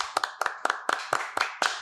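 Hands clapping in a steady, brisk rhythm, sharp bright claps landing in quick doubled pairs several times a second, fairly loud with no voices.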